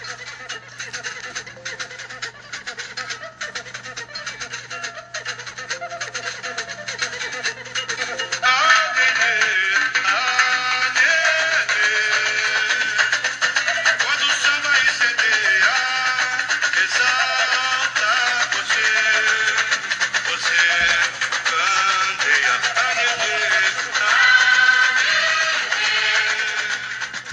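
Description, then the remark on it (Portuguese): A 1981 São Paulo samba school carnival song plays from an old, narrow-sounding recording, starting thinner and swelling into a dense, steady full ensemble with massed singing after several seconds, continuing loud throughout. “Do, de um, do início dessa década a gente escolheu um samba muito bacana, é o samba de 81.”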